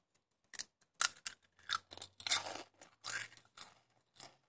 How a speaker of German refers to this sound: wenn du Chips isst, musst du das vom Mikrofon machen. Nimm dir einen Chip. Nimm ihn mal.